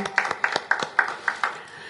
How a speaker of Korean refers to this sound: 오직 믿음으로 이 재단을 이끌어 오신 당의자님께도 우리 감사의 박수를 보내드립니다.